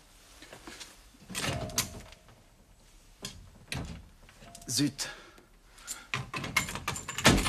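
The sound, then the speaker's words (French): A sideboard cupboard door that needs repairing is tugged open, catching and sticking with a series of rattling wooden jolts and knocks, while a voice briefly exclaims. “Il faut juste réparer la porte du buffet.”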